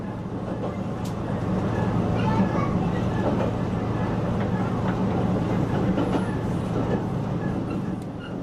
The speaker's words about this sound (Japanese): 濁るという字に水と書きます濁水駅から列車に乗っていますと緑色のトンネルの中にいるようです、えー、この区間ではですね多くの場所で道路と平行にこの鉄道が走っているんです